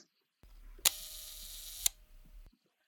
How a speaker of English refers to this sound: we're just going to listen to the sound of the shutter and let's see if anybody can guess the camera just from the sound of the shutter.